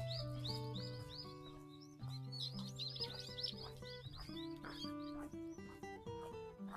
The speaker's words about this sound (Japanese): 鳥の声って聞こえますかねすごい泣いてるんですけど。